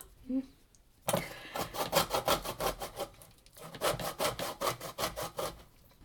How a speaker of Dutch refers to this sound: Dat is een hele grove. Ja, nou ja. Als het niet kan zoals het moet. Ja, hij raspt in ieder geval.